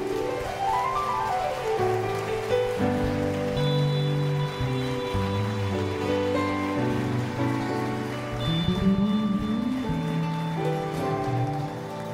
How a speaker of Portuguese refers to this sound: Quem sente a presença de Deus nesse lugar, aplauda o Senhor bem forte aí.